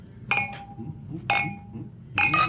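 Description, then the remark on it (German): Glasses clink together in a toast, three bright ringing taps spaced about a second apart, the last one a quick double clink, with soft murmur underneath. “Prost die Dame, Prost die Herren.”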